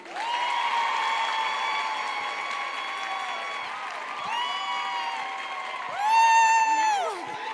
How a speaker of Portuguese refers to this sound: Queria pedir, né? Aplausos para minha amiga